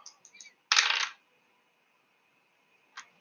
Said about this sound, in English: But sadly, if I roll these dice right here, your little child